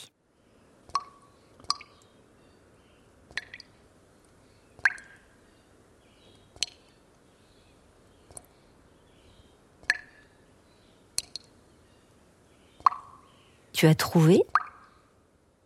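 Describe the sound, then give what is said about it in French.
Water drops fall one at a time into a box, about nine hollow plinks spaced a second or two apart, crisp, followed by a brief spoken voice at the end. “une goutte qui tombe dans une boîte.”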